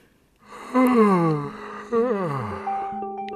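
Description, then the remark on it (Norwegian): A person yawns aloud twice, each a drawn-out, falling moan-like breath, followed by a faint steady tone at the end. No speech. “Gjesping er såpass grunnleggende for oss at den første gangen du gjespa, antageligvis var som et foster i livmoren.”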